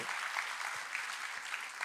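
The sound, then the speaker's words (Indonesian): A church audience applauds together for God, a dense, steady wash of many hands clapping at once with scattered sharper claps standing out, sustained and fairly loud for the whole moment. “Tepuk tangannya boleh yang paling meriah buat Tuhan.”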